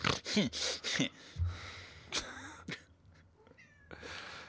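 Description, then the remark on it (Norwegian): A cat meows several times in quick succession, fairly loud, with sharp bursts and rising, wavering tones, then a few softer sniffs and breathy noises before fading. “Pust! Nå holder du kjeft. Pors, pors, tettfan, miss, miss.”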